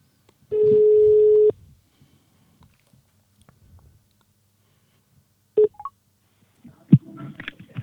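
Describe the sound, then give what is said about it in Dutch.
A steady telephone ringing tone sounds for about a second as a phone call is placed, followed after a pause by one short beep, then faint clicks and handling noises. No one speaks. “Nou, dan lijkt het me nu de hoogste tijd om te gaan bellen”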